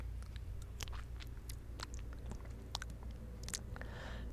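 A person wetting their lips: wet mouth smacking and lip clicks, a dozen or so sharp moist pops scattered irregularly over a few seconds, fairly quiet, with no talking.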